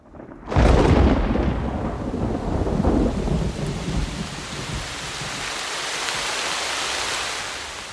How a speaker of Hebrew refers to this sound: למה דווקא עכשיו התחיל לרדת גשם?